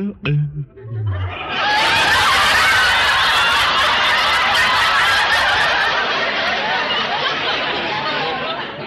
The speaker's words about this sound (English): You have just heard the frog's version of a wolf whistle.